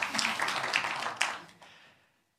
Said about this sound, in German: Applaus für Kinder in dieser Kirche.